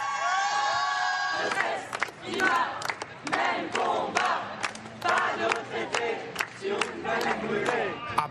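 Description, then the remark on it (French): A sustained, tonal horn-like note opens before a large crowd in the Paris May Day march against pension reform, put at 550,000 protesters by the organizers, erupts into loud, dense chanting and shouting, with rhythmic bursts of voices rising and falling throughout. “Dans le cortège parisien, 550 000 manifestants d'après les organisateurs”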